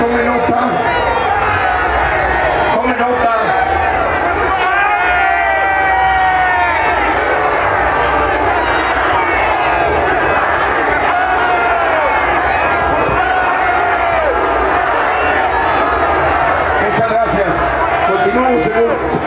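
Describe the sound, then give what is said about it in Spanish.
Hundreds of thousands of people in the Plaza de la República shout 'guilty' at the president over and over before a popular jury, voices roaring together in a loud, continuous, overlapping chant that never lets up. “Cientos de miles de personas gritando culpable al presidente por traición a la patria, genocidio, peculado, crimen organizado, crímenes electorales.”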